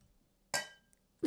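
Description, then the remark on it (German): A single bright clink of glass struck once to ring in a special moment, ringing briefly with a shimmering tail before a muffled knock or shuffle closes the moment, fairly clear. “Warte, ich, ich, ich klinge das ein.”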